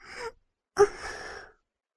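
A woman pants heavily: a short breathy gasp, a brief pause, then a longer, sharper breath that trails off into a rough, airy exhale.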